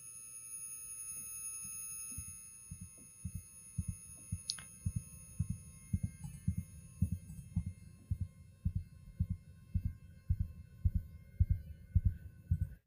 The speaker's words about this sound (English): but he was shooting a lot of gunfire, and you can listen here to the sound of tinnitus.